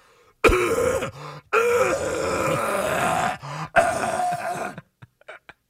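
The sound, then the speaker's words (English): A person makes loud, strained choking and gagging noises in several long bursts, separated by brief gasping pauses and ending in a few short sputters. The voice imitates choking, presented as highlights of the Dolphins' game against the Titans. “It's choking because they choked.”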